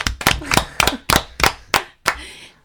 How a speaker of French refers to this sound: Bravo, on applaudit. Merci à tous.